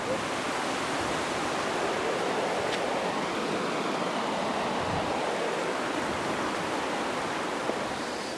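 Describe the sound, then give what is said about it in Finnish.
The Kukkolankoski river rapids, within sight of Sweden, roar steadily throughout, a dense, continuous wash of churning water that sounds fairly loud, with no pauses or voices over it. “Kukkolan koski. Koskien koski.”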